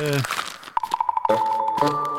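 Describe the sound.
Papers rustle and crinkle in a quick burst of handling as a person sorts papers looking for the next news item, with a steady tone and a voice audible around them.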